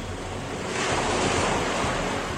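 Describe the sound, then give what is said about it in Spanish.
Steady ocean surf rushes over a deserted beach, a wave swelling to a louder crash partway through before settling into a continuous hiss of foam, with some wind noise and no voices. “Las olas rompen en la playa solitaria”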